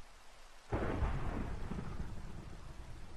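A deep roll of thunder breaks in suddenly over steady rainfall, its low rumble swelling loud and then lingering as it slowly fades beneath the continuing patter of rain.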